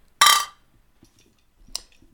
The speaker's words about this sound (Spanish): Y que suenen los cristales